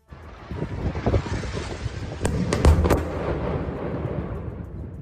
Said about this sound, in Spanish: Hoy las bombas caen en la franja de Gaza. Este es un sonido de esta misma noche. Bombardeos en Gaza, también en el norte de Tel Aviv.